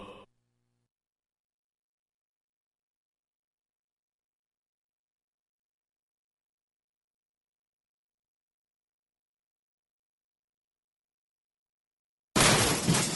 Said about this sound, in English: That's the sound of people throwing out their old dehumidifiers.